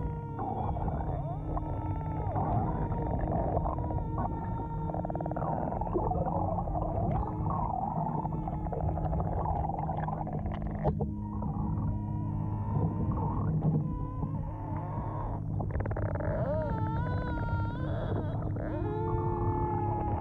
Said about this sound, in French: Je vous laisse écouter ce monologue de cétacés.